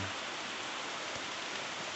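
Steady rain falls in a constant, dense hiss with no break, spread evenly and fairly loud throughout, with no voices or other sounds over it.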